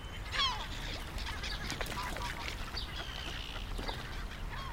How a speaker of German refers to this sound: Mir geht das Herz auf, wenn ich hier am Bodensee stehe und das Wasser plätschern höre und die Vögel zwitschern und da schwimmen die Blässhühner und ja, die Möwen schreien und das ist einfach toll.